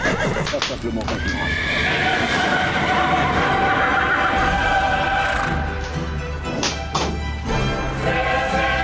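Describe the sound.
Horses neigh and whinny loudly over a steady clip-clop of hooves. A dense, busy mix with faint background voices underneath.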